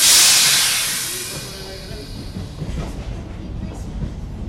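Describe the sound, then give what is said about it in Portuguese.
A train departs from platform line number 4 of a station: a loud burst of hissing air at the start fades into a steady low rumble with faint rhythmic clanks of the carriages. “Vai partir na linha número 4 o comboio com Na entrada para os comboios, atenção à distância das portas e a plataforma.”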